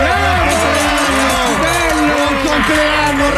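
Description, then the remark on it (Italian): A loud, steady burst of crowd noise on the Italian radio show Lo Zoo di 105 on Radio 105: many voices cheering and whooping over a continuous wash of clapping, sustained for a few seconds without a break. “Un applauso, signori, è il più bello del mondo!”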